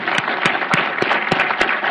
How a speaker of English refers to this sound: Uh, so I'd uh, like to uh, ask everyone to join me in a round of applause to thank Ambassador Bolton.